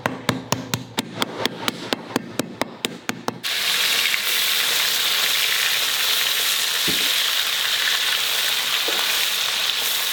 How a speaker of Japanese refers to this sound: 今朝は東西線南行徳駅から徒歩7分気楽焼肉定食のいい音